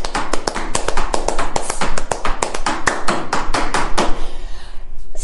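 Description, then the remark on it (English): Crisp hand claps and foot stamps beat out a quick, steady rhythmic pattern for about four seconds, then stop. No one speaks. “So your foot and your hand do two total and different”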